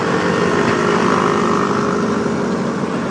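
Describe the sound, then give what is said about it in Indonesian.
A loud motorcycle engine roars steadily throughout, a continuous buzzing drone with no speech, as it passes by outside. “ya begitu tuh ada suara motor berisik luar ngalah ya”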